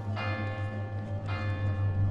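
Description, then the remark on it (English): The small bell of a cathedral in Brittany, France, rings twice on a fine late summer afternoon, about a second apart, each bright strike leaving a shimmering ring that decays slowly over a steady low hum. “I hear the tiny bell of the cathedral ringing insistently.”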